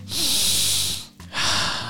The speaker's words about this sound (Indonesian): ini tarik nafas dulu ya.